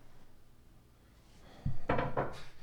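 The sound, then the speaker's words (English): After a quiet moment, a slide-out top side desk drawer is slid and handled, giving a low wooden thump followed by two or three quick scraping clunks. “So this is like a slide out um, oh thing. You can choose oh whatever top side drawer you want.”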